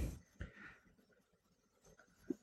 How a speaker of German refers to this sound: ich viertel die jetzt, also der Länge nach und dann schneide ich hier so vier Millimeter breite Scheibchen runter